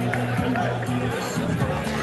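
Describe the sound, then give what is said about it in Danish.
A steady murmur of many voices from a crowd of about 300 to 400 football fans, mostly men dressed in red-and-white national team jerseys, continuous and fairly loud, with overlapping talk blending into a busy hubbub. “mig står to, tre, 400 øh, primært mænd, alle sammen klædt i øh, rød-hvide landsholdstrøjer. Øh, der er faktisk ganske, ganske kanon stemning, må jeg sige.”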